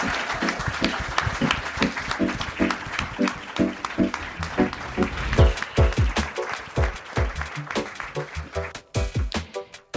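Loud, sustained applause from an audience for the panel guests at the close of a studio talk, a dense patter of many hands clapping with scattered sharper claps and a few low thumps, swelling slightly toward the middle and continuing to the end.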